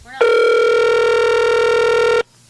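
A single steady ringback tone from an outgoing phone call, one buzzy electronic burst lasting about two seconds before cutting off abruptly. Loud, with no talking over it.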